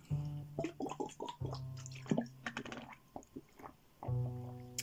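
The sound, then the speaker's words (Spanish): Someone takes a short pause to drink water: wet sips and gulping swallows come in a few bursts, with small mouth clicks and squishy sounds between them. No one speaks. “Hacemos una breve pausa para tomar agua.”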